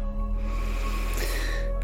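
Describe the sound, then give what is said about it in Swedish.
A long, steady breath drawn in through the nose, airy and hissing, swelling slightly toward the end, with a faint low hum running underneath and no talking. “Andas in igen.”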